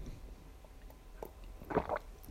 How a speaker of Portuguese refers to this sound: É, eu sempre falo, deixa eu só beber água.